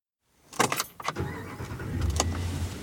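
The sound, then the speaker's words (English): Keys jingle and a vehicle door clunks shut, followed by the low, steady rumble of a large rented pickup truck's engine idling, the truck being driven into Yellowstone National Park. “Probably unnecessary that um, I rented this big of a pickup truck. But uh, here we are. We are driving into Yellowstone.”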